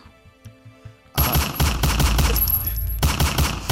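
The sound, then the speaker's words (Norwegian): A few soft low thumps, then sudden loud, rapid gunfire erupts as Truls Svendsen shoots at Per Sandberg, continuing as a dense, crackling barrage of overlapping shots until the end. “per Sandberg er forferda og sier Truls Svendsen, hvorfor kom du hit for å skyte meg?”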